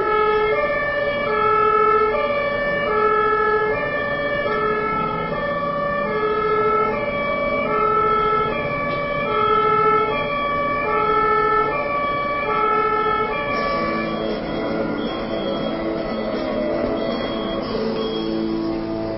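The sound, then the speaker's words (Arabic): An ambulance siren wails loudly and steadily, alternating between two pitches in a regular repeating pattern, with a low rumble of road traffic beneath it. “بقى تحصل لكم لما تبقوا في الطريق الزحمه وتسمعوا الاسعاف مشغل نفس الصوت وكل لما الناس حد يفضي حته للاسعاف يقوموا التانيين ايه يدخلوا يستغلوها”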